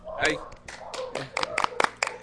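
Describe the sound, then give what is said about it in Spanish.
A brief round of applause from a small group for a participant's contribution, scattered irregular claps building to sharper hits, with a voice talking underneath at the start. “Un aplauso”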